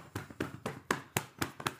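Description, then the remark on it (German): Hands tapping rhythmically on the lower back, about seven soft, dull pats at a steady quick pace, fairly quiet, with no talking. “Geh auf deinen Rücken und klopf deinen unteren Rücken aus.”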